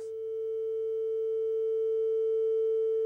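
A steady, pure electronic tone holds at a single pitch around concert A, sounding clean and continuous over faint low hum, without any speech, and swelling gradually louder.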